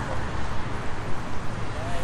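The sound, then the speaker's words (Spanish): Dense, steady traffic rumble with a hollow, reverberant quality, the cars passing echoing under a road bridge in a city as a cyclist rides beneath it, with faint whooshes of passing vehicles throughout. “Se oye distinto, ¿no? Estoy pasando por debajo del puente un eco de todos los carros que pasan.”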